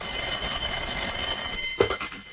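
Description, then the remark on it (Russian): A telephone rings with a steady, shrill electronic tone for about a second and a half, then cuts off into a few clicks and clatters, as if the receiver is picked up. “Видимо, звонили вам.”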